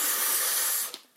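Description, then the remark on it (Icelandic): A voice imitates a man forcefully blowing out air after drinking, a steady breathy hiss of air lasting about a second before trailing off abruptly with a faint puff at the end. “og svo blæs hann svona frá sér svona, Já, eftir að hann búin að drekka hana sko.”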